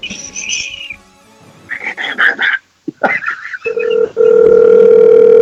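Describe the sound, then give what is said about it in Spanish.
A phone call plays over a speaker: a few short electronic tones and bursts, then a loud, steady ringing tone that holds to the end. “Llama a tu mamá, mira, escucha.”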